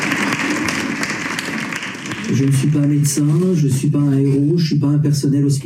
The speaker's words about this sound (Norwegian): På balkongene rundt står naboene og lytter og klapper.